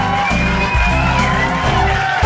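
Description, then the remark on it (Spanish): A loud, steady burst of crowd cheering and applause with whoops and shouts on the Radio Católica Mundial radio show, sustained throughout without a break, with a faint tonal hum running beneath the noise. “nuestros aplausos, todo nuestro amor,”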